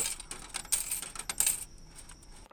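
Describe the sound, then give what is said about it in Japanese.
Coins clinking and dropping into a vending machine while buying juice, a quick series of bright metallic taps and jingles over about a second and a half, fairly quiet, then settling into faint hiss. “自販機でジュース買ってる音”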